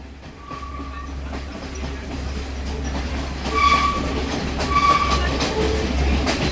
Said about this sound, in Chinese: 车站广播之后，火车开动了。在车轮与铁轨的撞击声中